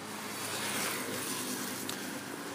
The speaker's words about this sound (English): All right, I noticed a bunch of garbage trucks coming down the road, and they're they're noisy motherfuckers.